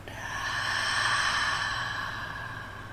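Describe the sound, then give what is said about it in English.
A long, slow breath pushed out through the nose while gently breathing in and out, a soft steady airy rush that swells and then gently fades over a few seconds, unaccompanied by talk. “Again, gently breathing in and out.”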